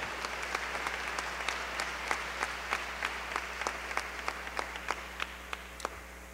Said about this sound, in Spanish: Si, le vas a aplaudir al Señor, apláudele fuerte, apláudele fuerte, fuerte, fuerte, fuerte.